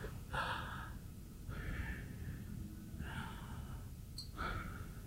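A person breathes audibly and deliberately, alternating slow inhales and exhales, four airy breaths in steady succession, with no talking.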